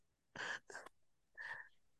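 Sharp sneezing bursts: two quick explosive blasts back to back, then a brief pause and a third forceful sneeze, with no talking around them.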